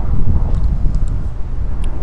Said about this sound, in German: Ja, Leute, es wird richtig rauschige Folge, hier, weil hier ist auch ganz schöner Wind unterwegs. Wir haben leider keinen besseren Spot gefunden, weil in unserem Hostel ist es auch ziemlich laut.